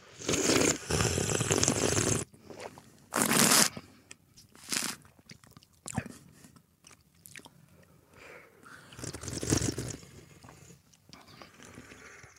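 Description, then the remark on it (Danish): Several loud slurps of tea during a tea tasting, a long one first and then shorter bursts, with quieter sipping and mouth sounds in between and no talking. “Jamen... Øh, med lyd på. Det gør vi. Der slubres.”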